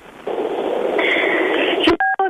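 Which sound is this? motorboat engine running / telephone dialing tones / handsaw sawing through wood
telephone dialing tones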